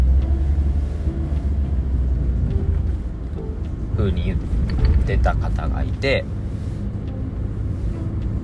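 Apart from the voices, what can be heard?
car engine running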